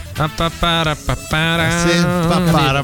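A man hums a tune up close, a few short clipped notes at first, then a longer sustained melodic phrase that wavers up and down in pitch.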